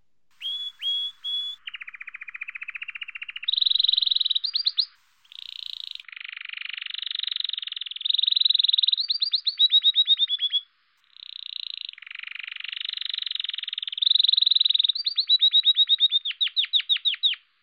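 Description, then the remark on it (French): A canary sings alone, loud, in an unbroken, melodious run of high whistles, buzzy rolls and rapid trills, changing tour every second or two with only brief pauses. “Pour démarrer cette chronique, écoutons un instant le chant intense et mélodieux d'un canari malin.”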